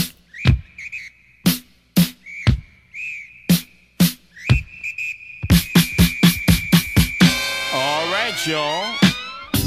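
Intro of a 1979 funk record, among the first to have an MC rap over funk: a steady, punchy drum beat and a long shrill whistle running over it, building into a bright, dense horn-like swell near the end.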